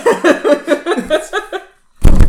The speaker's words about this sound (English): he hits the table.